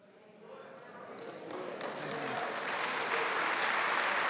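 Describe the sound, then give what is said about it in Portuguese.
Audience applause builds steadily from scattered claps into dense, continuous clapping that grows louder over a few seconds, with a faint murmur of voices underneath. “Ah, vocês estão aplaudindo?”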